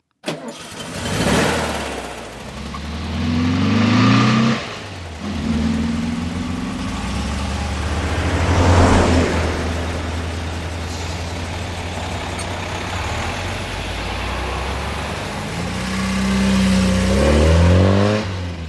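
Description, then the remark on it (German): Several vehicle engines in succession: a passenger car starting and revving, a deep rumbling truck, and a high-pitched race car engine whining up and down, loud with no talking. “Auch verschiedene Autotypen werden im Gehirn kartiert, zum Beispiel Pkw, Lastwagen und Rennwagen.”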